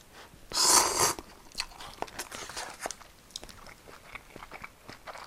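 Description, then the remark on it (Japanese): A loud slurp of instant noodles opens, followed by a run of soft, irregular chewing and mouth sounds as someone eats them. No one speaks. “でもこのそばとうどんは食べたくなるから、まあ、どん兵衛か赤いきつねと緑のたぬきはねどっちかは大体ありますねうちにストックされてますそんなこと言いつつ久しぶりに食べたなこれ”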